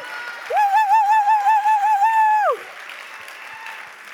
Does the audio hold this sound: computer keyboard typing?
no